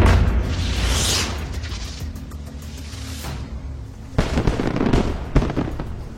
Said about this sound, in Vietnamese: pháo hoa phóng lên trời nổ rực rỡ